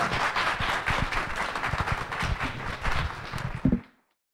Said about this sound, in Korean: 함께 해주신 세 분께 큰 박수 부탁드립니다.